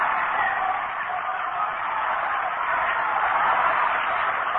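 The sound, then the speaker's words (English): A steady crowd hum fills a baseball stadium in the ninth inning as Carl Furillo steps into the batter's box, an even wash of murmuring voices with no distinct words, holding at a constant moderate level throughout without cheers or sudden swells. “And now you can hear that hum in the background as Furillo steps in the batter's box.”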